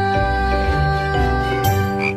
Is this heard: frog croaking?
yes